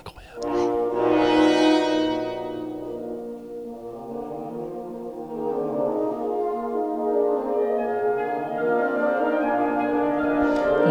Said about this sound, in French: c'est une toute petite, euh, un tout petit ensemble avec deux clarinettes, deux bassons, deux corps et encore deux clarinettes.